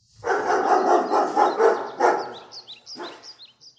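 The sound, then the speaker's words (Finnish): A dog barks in a rapid, steady run of about half a dozen loud barks, then trails off into fainter yips while high, quick chirps sound in the background. “Tälläkin hetkellä niitä tuossa luikkii nurkissa”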